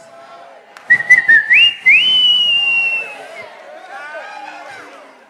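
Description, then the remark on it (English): A person whistles loudly: a few quick chirps, then a long note that slides up and holds before fading, with murmuring voices in the background. “In our days, they used to use whistle to call their girlfriends.”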